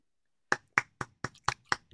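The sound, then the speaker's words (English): A short burst of hand clapping given for a joke: about seven sharp, even claps in a quick steady rhythm after a moment of silence, with no voices. “I have to give you a clap more for like that.”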